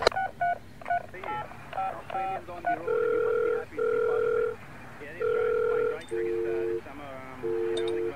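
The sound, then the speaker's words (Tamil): A phone number for the Bihar Association is punched in as a quick run of short keypad beeps, followed by several longer, steady two-tone beeps repeating at an even pace as the line rings unanswered. “சரி பீகார் அசோசியேஷனுக்கு போன் போடு”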